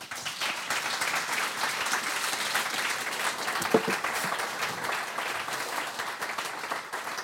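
Sustained audience applause for a guest who runs a farm, a dense steady wash of many hands clapping at even loudness throughout, with a brief louder clap or whoop near the middle and no talking over it.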